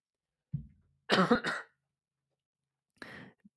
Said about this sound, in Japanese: こんな感じでちょっと咳が非常に出そうな感じでぶり返しそうなんで、これぐらいにしとこうと思います。